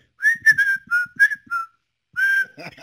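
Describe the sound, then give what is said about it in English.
A person whistles an imitation of a New York bird's call, a series of short, bright chirping notes with slight pitch bends, a brief pause, then one longer sustained whistle followed by breathy noise. “Yeah, could you imagine like the New York birds? They go.”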